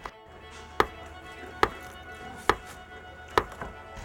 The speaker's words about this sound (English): It took me quite a while to learn how to break the stones in a way that would produce a crack that had a kind of energy to it. And eventually I found the best way to do it was to hit the stone from behind with a hammer.